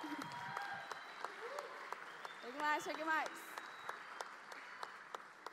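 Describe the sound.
Steady audience applause at an evening event as a girl is called up to the microphone, a dense patter of many hands clapping, while a man's voice calls out briefly over it.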